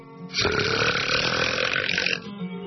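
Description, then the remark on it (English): A single loud, drawn-out burp rumbles for nearly two seconds, forceful, with no talking around it. “No shame, no guilt, no more tummy rumblings, smelly belches, no more stopping in mid sentence to uncork a big cheesy blaster.”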